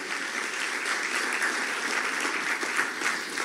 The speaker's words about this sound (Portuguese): Quem quer essa glória de Deus na sua plenitude aqui? Dá uma linda salva de palmas para o Senhor aí no teu lugar.